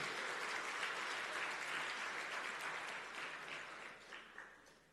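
A crowd applauds loudly with dense, steady clapping that fills the space, then gradually thins and fades toward the end.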